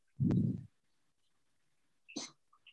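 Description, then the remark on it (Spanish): An asthmatic female cat coughs: one thick, low hacking burst, then after a pause a second, raspier cough, with a couple of faint small sounds trailing off. No one speaks. “Em, ¿Vas a toser una vez más?”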